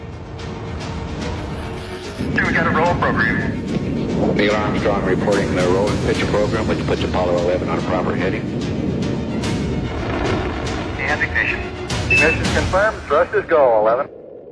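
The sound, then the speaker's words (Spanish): A deep, continuous roar of the Apollo 11 rocket launch swells in abruptly after a quiet start and holds loud and rumbling throughout, with a voice talking over the thunderous noise. “La explosión provoca pequeños seísmos por toda Norteamérica que alcanzan los 4,6 en la escala Richter.”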